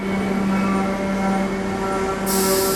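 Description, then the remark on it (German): A railway sleeper car (Liegewagen) rolls in with a loud, steady rumble and droning hum, then a sharp burst of hissing air comes in near the end as it halts. No one speaks. “Das ist unser Wagen. Der hält jetzt an, dann können wir da einsteigen.”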